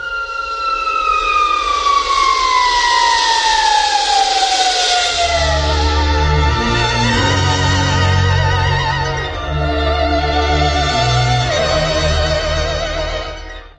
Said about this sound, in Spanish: a poco no, este es un clásico sonido de la ciencia ficción.